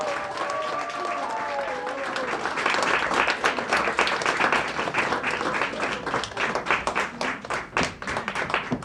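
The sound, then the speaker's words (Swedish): A crowd bursts into sustained applause for all the contestants of the Sci-Fi World cosplay contest in Helsingborg, 2019, dense clapping that swells and stays loud throughout, with a few faint voices and whistle-like tones mixed in at the start. “Ge dem den största applåden de kan få!”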